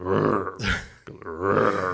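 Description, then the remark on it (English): Two deep, croaky burp-like noises of a vehicle's augmented engine noise, loud, with a short breathy rasp between them; each one is drawn out and rumbling, with no talking. “like burps. Did you notice that when you lock it?”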